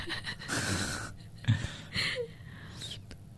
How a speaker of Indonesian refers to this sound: Aku bikin anaknya nangis.